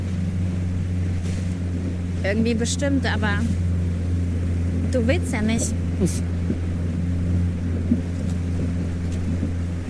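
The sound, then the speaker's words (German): A motorboat engine drones steadily and loudly throughout, a low constant hum with water noise, under sunshine and a blue sky with a little wind, while people talk briefly over it. “Das heißt, diese Szene mit dem Motorboot zum Beispiel, die war dann ganz schön und äh, erfrischend, weil da ein bisschen Wind dann kam.”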